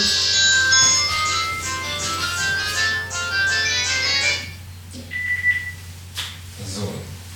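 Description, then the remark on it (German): An electronic phone ringtone plays a bright, repeating melodic pattern for several seconds over a low hum, then stops, followed by quieter shuffling and faint voice sounds. “Oh, das Telefon klingelt.”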